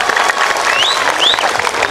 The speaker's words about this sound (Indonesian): Hari ini panitianya begitu luar biasa. Saya minta tepuk tangan dulu dong buat panitia kita, masya Allah.